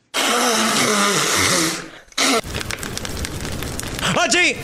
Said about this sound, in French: On ah. entendait quelqu'un qui se mouche et du feu.